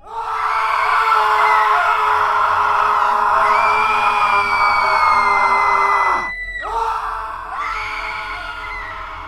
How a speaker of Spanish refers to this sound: El sufrir de sus padres no tenía consuelo y sus gritos de dolor se escuchaban a lo lejos.